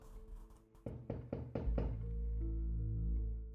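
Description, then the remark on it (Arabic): Four firm knocks on a door in quick, even succession, fairly loud, as someone knocks repeatedly at a person's door at night, over a low droning background that swells into a sustained hum after the knocking stops. “ظلت أدق الباب عدة مرات بلا جدوى.”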